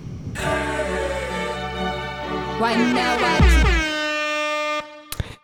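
A short musical jingle built on a loud, blaring air horn with sweeping, pitch-bending tones, ending in a quick clap-like hit and a final snap; no one talks over it.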